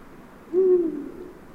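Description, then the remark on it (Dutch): A single deep, low hoot from a Eurasian eagle-owl, steady and resonant for about a third of a second before trailing off into a soft, breathy tail. No voices are present. “Klinkt Afrikaans, maar het is eigenlijk de Oehoe. Onze vriend de Oehoe.”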